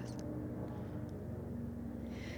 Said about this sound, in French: Attends, il y a un avion qui passe.